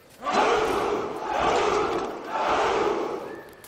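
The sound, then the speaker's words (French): A gathered crowd shouts a rallying cry, likened to a stag's bellow, in three loud, sustained surges, each swelling and fading into the next. The massed voices blend into a roaring chant. “Un peu plus loin, un attroupement de divers spécimens et un cri de ralliement semblable au brame du cerf.”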